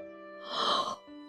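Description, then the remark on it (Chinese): A single drawn-out, breathy yawn voiced by a person, swelling and then trailing off over about half a second, with no talking around it. “他不停地打着哈欠”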